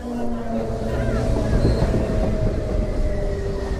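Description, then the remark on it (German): A steady, loud rumble of a train rolling along the rails back to Paris, with low droning hum and faint rhythmic rattling throughout. “und dann im Zug zurück nach Paris gefahren”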